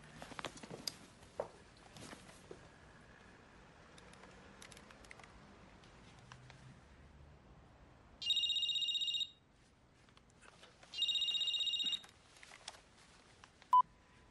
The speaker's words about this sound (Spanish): Llama por teléfono.